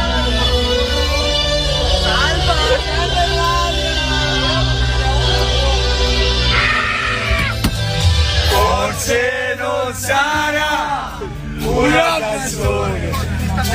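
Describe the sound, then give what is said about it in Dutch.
The Italian national football team sings together in a loud, rowdy, continuous chant on their bus to the plane after winning the European Championship final. The melody rises and falls over a dense, noisy background. “Oh, ja, we horen de Azzurri, dus we horen de, de, het Italiaanse elftal in de bus op weg naar het vliegtuig na de gewonnen finale.”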